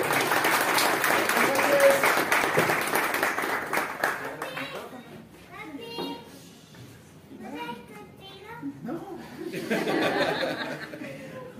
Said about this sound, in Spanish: Un aplauso, por favor.